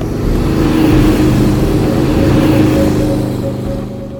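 Cars roar past with engines revving in Venice, a loud, sustained rumble of low mechanical drone and harmonic whine that swells early and slowly fades toward the end, with no talking.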